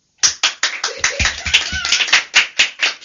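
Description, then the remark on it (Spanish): Brisk, steady applause of sharp hand claps in a quick even rhythm, about fifteen in all, with faint murmuring underneath partway through, welcoming contestants on a quiz game. “Y ahora, con un caluroso aplauso, reciba, recibiramos a los personajes reales de la Navidad.”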